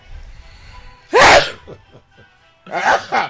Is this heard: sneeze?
yes